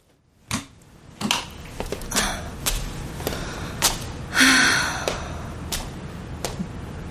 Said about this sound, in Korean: 차 문을 열려고 하는 사이 가 쪽에서 발걸음 소리가 들려온다.